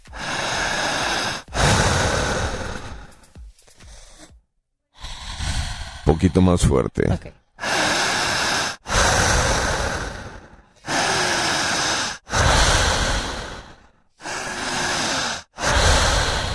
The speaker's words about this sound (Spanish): Mediante un proceso llamado hiperventilación pulmonar con mecanismos diafragmáticos de, forma controlada, vamos a sobreoxigenar el torrente de sangre.